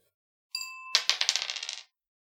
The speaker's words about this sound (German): Gern dafür würfeln, ja.